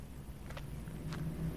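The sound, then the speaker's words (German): A car arriving outside, its engine rumbling low, steady and muted, with a couple of brief soft knocks over the hum. No one speaks. “Ihr habt das Auto ja eben auch gehört, so wie ich.”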